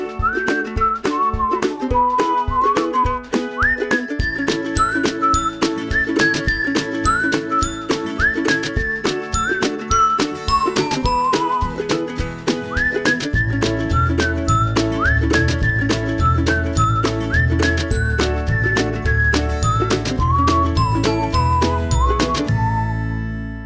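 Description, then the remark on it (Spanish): A cheerful whistled melody rises and falls over bright tinkling chimes and a steady rhythmic backing, with a deeper bass line joining halfway through; no one speaks. “Bueno, vamos con el silbidito hermoso.”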